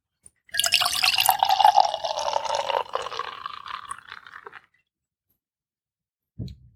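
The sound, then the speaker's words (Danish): Beer, the first of a beer Christmas calendar, pours from a bottle into a glass with a bubbly, fizzing rush, the bottle glugging and foam crackling for about four seconds before it stops, then a brief low thump. “Både noget, der skummer i glasset og knaser lidt, og så en flaske, der klukker lidt.”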